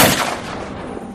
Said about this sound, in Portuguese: A Lídia para de tocar e cai para trás quando o tiro acerta ela.